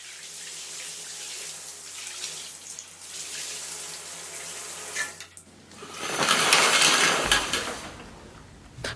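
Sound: shower water running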